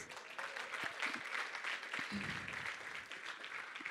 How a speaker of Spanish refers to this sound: ¿Por qué no le das un fuerte aplauso a Dios?